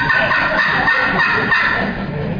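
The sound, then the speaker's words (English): A turkey call yelps like a hen, a loud run of raspy, nasal notes repeated in quick succession for a couple of seconds with no talking. “And that old hen's yelping, that's what she's saying all the time.”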